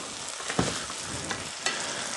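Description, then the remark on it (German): Ingredients simmering in a cooking pot, a steady hissing, bubbling sizzle with a couple of sharper pops or clinks breaking through, and no one talking. “Jo, hier köcheln meine, meine Zutaten.”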